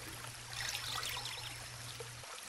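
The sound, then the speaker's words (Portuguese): Steady water flowing and pouring, a continuous splashing rush with a low hum underneath that cuts off near the end; the water where John the Baptist stands baptizing. No voices. “João Batista está logo ali, na água.”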